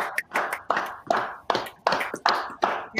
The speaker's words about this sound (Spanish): Un aplauso para